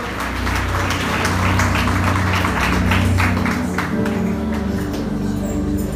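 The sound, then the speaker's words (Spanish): A church audience applauds the Lord steadily for about six seconds, a dense, even wash of clapping over a low sustained musical hum, with a faint murmur of voices beneath. “Denle un aplauso al Señor y tome asiento, por favor.”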